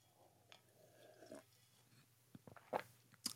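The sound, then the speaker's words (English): A quiet sip from a drink, a soft drawn-in slurp followed by a few small wet clicks and swallow sounds, with no one talking. “Yep, there it is. That's the sip of the day right there.”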